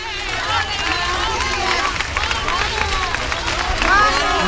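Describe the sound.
A large crowd in the Plaza del Altozano in Triana, Seville, applauds steadily as a funeral carriage arrives, while many voices shout and call out over one another, a dense, loud wash of clapping and cheering that holds throughout and swells slightly near the end.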